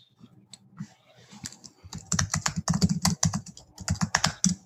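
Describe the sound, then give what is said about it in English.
Rapid typing on a computer keyboard as a man searches his computer, starting with a few scattered keystrokes and building into a dense, steady run of clicking keys that grows louder in the second half, with no voices. “Searches his computer.”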